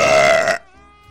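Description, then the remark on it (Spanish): A single loud, raspy recorded burp sound effect lasting about half a second, clear, cutting off abruptly into near silence with a faint tonal hum trailing after. “Es un eructo, marico, está grabado aquí.”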